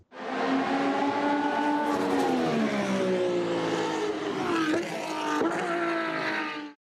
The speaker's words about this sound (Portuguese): Na verdade, mesmo o ronco dos motores, que é apaixonante para os fãs de automobilismo, deve ser dosado no começo da carreira de um piloto. Muitas crianças podem se assustar com o barulho antes de sequer entrar no kart.